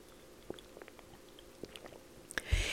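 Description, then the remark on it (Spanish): Someone takes a quiet sip of water: soft wet mouth clicks and small swallowing noises scattered over a couple of seconds, ending in a brief, louder rustling clatter. No one speaks. “Y por cierto, voy a tomar un poco de agua.”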